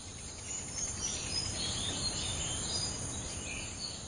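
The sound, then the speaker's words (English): A steady nighttime insect ambience recorded by artist James Prosek on the Micronesian island of Pohnpei. Dense high-pitched cricket-like trilling and buzzing holds at an even level, with occasional faint chirps over a low rumble and no talking. “This is a recording James Prosek made of night sounds on the Micronesian island of Pohnpei.”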